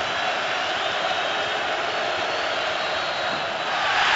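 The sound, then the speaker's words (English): A dense, steady roar of a basketball arena crowd as Giannis misses a free throw fills the whole stretch, loud and continuous with no single voice standing out, swelling slightly toward the end. “Giannis misses again amidst the noise from the crowd,”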